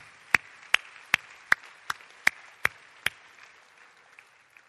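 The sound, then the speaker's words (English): A church audience claps for standing ministry members in a steady, even rhythm: eight sharp, loud claps about a third of a second apart over a faint murmur, then the clapping trails off into quieter scattered sounds. “Give these guys a hand.”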